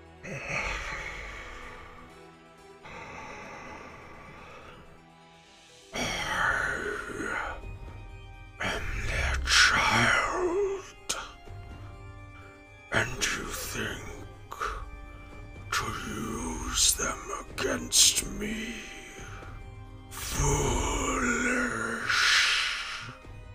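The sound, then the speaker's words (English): A person imitates a monstrous creature voice, a harsh, rasping growl with breathy groans and gasps in drawn-out bursts. It is fairly loud and has a hollow, echoing quality. “You hear this horrible, just rasping voice that seems to echo from somewhere far, far away.”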